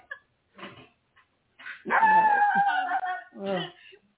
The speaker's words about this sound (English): There's no way these dogs are going to stop.